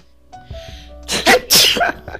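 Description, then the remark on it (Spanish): A loud sneeze bursts out after a brief inhale, a sharp double explosion of breath followed by a short fading exhale, with no talking. “Salud.”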